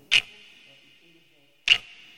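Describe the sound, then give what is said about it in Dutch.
Two sharp, slow ticks of a wristwatch about a second and a half apart, each with a bright metallic ring that lingers briefly. Fairly loud against an otherwise quiet background. “Hmm, de de wijzer kruipt zo tergend traag over mijn horloge.”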